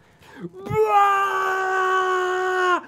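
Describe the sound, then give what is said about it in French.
A voice imitates a war cry: one long, loud, sustained wailing yell held steady for about two seconds before cutting off, preceded by a short breathy lead-in. “Puis t'entends même de loin un espèce de cri de guerre, genre.”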